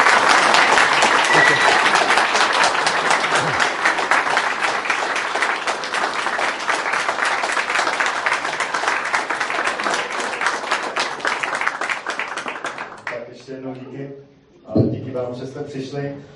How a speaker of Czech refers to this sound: Nemáme pro tebe kytku, ale věřím, že máme pro tebe celkem velký potlesk.